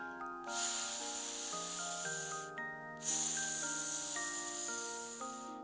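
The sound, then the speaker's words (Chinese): A steam train sets off: two long, loud bursts of hissing steam, each lasting around two seconds, rise over a gentle, steady melody of sustained musical notes; no distinct puffing rhythm stands out. “呜呜呜，鸣笛，突突突，喷气，越走越远。”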